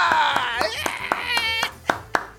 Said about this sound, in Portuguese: Senhoras e senhores, a todos vocês uma salva de palmas para receber a tia-avó do Departamento de Piadas